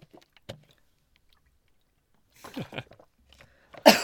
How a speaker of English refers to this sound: All right, let me grab a sip of water here.